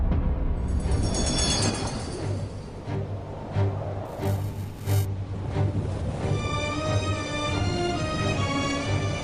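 A train rumbles past on the tracks, a steady heavy roar with rhythmic clatter from the wheels and a thin metallic squeal rising toward the end.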